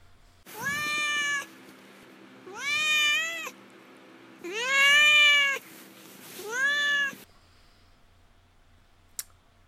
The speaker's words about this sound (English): okay, now let's move on to Duarte's corner, um, where I give uh, my cat Duarte a little bit of time to share his thoughts and opinions about the literature of the day, such as Under the Radar.